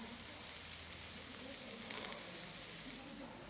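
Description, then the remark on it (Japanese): Steady sizzling of thinly sliced lamb on vegetables cooking as Genghis Khan (jingisukan) barbecue on a hot grill at Hitsujigaoka Observation Hill, a continuous crackly hiss with small pops, running unbroken with no talking. “急遽まあ次の目的地である羊ヶ丘展望台に来て今やきやきしてます聞こえますでしょうか”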